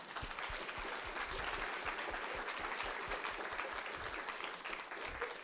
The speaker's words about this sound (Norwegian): Skal vi gi henne en god applaus?